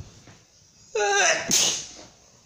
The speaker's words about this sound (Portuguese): Mais um espirro.